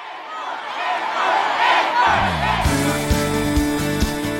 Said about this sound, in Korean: 무대 위에서도, 무대 아래서도 에 많이 그리웠던 이 소리. 목이 터져라 외치고, 듣고 싶었던 이 소리.